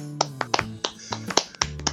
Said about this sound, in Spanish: Muy bien, muy bien, todo tranquilo y tenemos un invitado muy especial que quiero que con un fuerte aplauso le demos la bienvenida al profesor